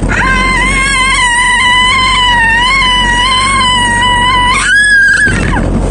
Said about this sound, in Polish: Ludzie, jaki wrzask.